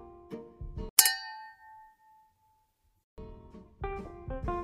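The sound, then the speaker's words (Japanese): A single bright clink of glasses touching in a toast, one holding coffee soy milk and one sparkling water with yuzu, fairly loud, its clear ring lingering and fading for about a second before other soft sounds return. “じゃあそれで乾杯。”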